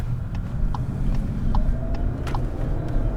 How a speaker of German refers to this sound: Über einen Feldweg direkt an den Bahngleisen entlang fahren wir mit dem Auto in Richtung Häckselplatz zur Eisenbahnbrücke.